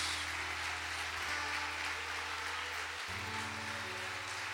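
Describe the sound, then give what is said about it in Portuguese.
An audience applauds the Lord in a dense, steady wash of clapping for the whole stretch, while low sustained keyboard notes hum underneath and shift to a new chord partway through. “Se você ama o Senhor, se você é grato, aplauda ao Senhor nesta hora.”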